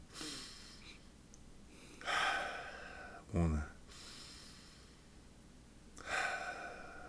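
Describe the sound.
A voice imitates the slow, deep breathing of a meditation audio: three or four loud, airy inhales and exhales spaced by quiet pauses, with a brief spoken word in between.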